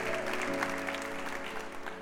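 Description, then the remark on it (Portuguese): A church audience claps in praise of the Lord, steadily in a dense, continuous burst of applause over a sustained keyboard chord, with no clear voices rising above the clapping. “Oh, aplauda o Senhor e adore, aleluia.”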